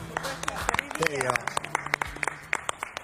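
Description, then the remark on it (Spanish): A family applauds with scattered, uneven claps throughout, sharp and fairly loud, while voices talk and murmur underneath. “¿Quién aplaudió de vuelta?”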